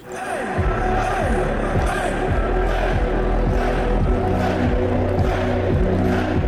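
A crowd of 30,000 fans at a concert in Minsk roars and sings along over loud, thumping music with a steady beat, a dense, continuous wall of sound filling the whole stretch.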